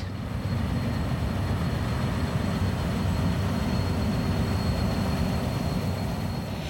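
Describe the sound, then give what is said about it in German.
A modern nut harvesting machine of the Nussgesellschaft Wartau, working like a giant vacuum cleaner with rotating rotors and a blowpipe lifting nuts from the ground, runs with a steady, heavy low-pitched roar and rumble, loud and unbroken, with faint high whining tones above; no one speaks. “Diese Gesellschaft hat eine moderne Erntemaschine. Das ist ein wie ein riesiger Staubsauger.”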